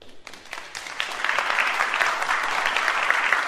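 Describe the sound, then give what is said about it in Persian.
A concert hall audience applauding a young performer who has come on stage to play the piano, dense steady clapping that swells in the first second and then holds at a full, even level. “وقتی بعد از تشویق رابی سالن ساکت شد”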